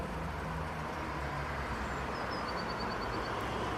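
A faint, rapid series of high, thin notes from a blue tit rises briefly over a steady roar of car traffic, with no one speaking.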